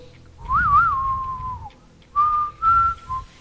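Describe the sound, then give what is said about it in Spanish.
A lone whistled melody in the style of a spaghetti western theme, a wavering phrase followed by long sustained notes, clear and prominent over a low rumbling backdrop. “Ese silbido, ese sonido quedó inmortalizado. Y cuando uno escucha eso, uno se da cuenta que es un western.”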